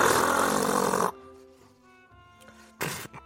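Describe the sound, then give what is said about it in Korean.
A voice imitates a money counting machine with about a second of loud, rough, buzzing noise, then a faint pause and a second short noisy burst near the end. “그러면 돈 세는 기계 소리 한번 할게요.”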